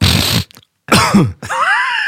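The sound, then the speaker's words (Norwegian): A voice imitates a sharp, noisy sniff, then after a short pause a rough throat clearing, followed by a brief hummed vocal sound, all fairly loud. “Du gnir deg på nesen, du trekker inn, og så gjør du Og så, gjerne, og så har du begynt å kremte mye.”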